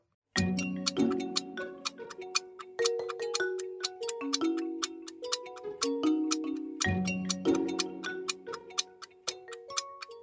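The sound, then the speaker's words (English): A steady ticking clock counts down ten seconds for a quiz question over a looping musical bed of sustained tones, sharp evenly spaced ticks cutting through clearly with no voices. “10 seconds are on the clock. Let's go.”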